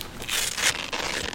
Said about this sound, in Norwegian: Den lyden du hører nå, det er en lyd mange i Forsvaret kjenner igjen. Du hører kanskje også at det er lyden av kraftige borrelåser. Men for en soldat så er det her også lyden av å ta på seg skuddsikker vest.